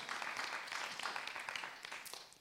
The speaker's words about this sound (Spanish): Aplauda el nombre del Señor.